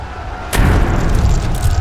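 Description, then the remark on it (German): The rams of about 300 Greek triremes strike Persian boats at the Battle of Salamis: a sudden heavy crash, followed by a loud, sustained rumbling roar of splintering impact with low booming and crackling texture, with no voices. “Mit gewaltigem Krachen treffen die Rammsporne der Trieren auf die Boote der Feinde.”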